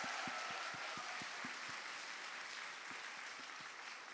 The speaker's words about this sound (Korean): 주식회사 4시 33분 그리고 러쉬 그리고 준호 헤어 그리고 조스 떡볶이에서 함께 저희 도와주고 계십니다. 이 모든 회사들 잘 되라고 여러분 감사의 박수 한번 좀 부탁드리겠습니다.